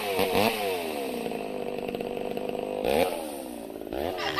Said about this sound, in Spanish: dame sonido de motor. Óyelo ahí, óyelo ahí